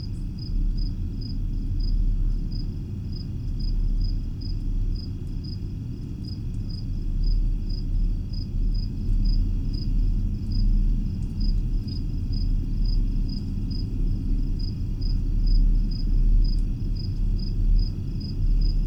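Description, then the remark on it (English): A steady, low rumbling hum, the 'Windsor Hum', recorded in a backyard in August 2011, drones on without a break for the whole stretch, while a cricket chirps in quick, even pulses above it. No one speaks. “Is the 'Windsor Hum' Finally Over?”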